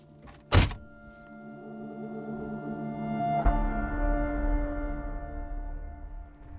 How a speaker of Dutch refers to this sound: Even de auto uit.